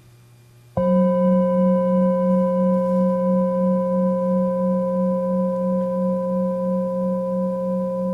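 A meditation bell is struck once and rings out alone with a steady, resonant hum that lingers and slowly fades across several seconds, with no voices.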